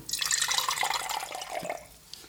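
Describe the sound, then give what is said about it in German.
Water splashes and swirls as a wine glass is rinsed with a sip of water between wines at a wine tasting, a steady, trickling wash lasting about two seconds with no talking over it. “Schluck Wasser mit Glas mal spülen hier.”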